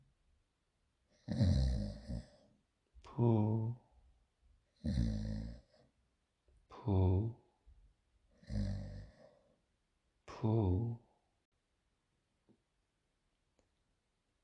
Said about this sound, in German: Alles, was nun noch zu hören ist, ist das prasselnde Feuer und das wohlige Schnarchen der beiden Freunde.